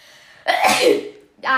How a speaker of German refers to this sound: Oh, kennt ihr das, wenn euch ein Nieser in der Nase steckt Das ist richtig unangenehm ja. und ihr wünscht euch einfach, dass ihr niest? Genau das ist gerade bei mir der Fall.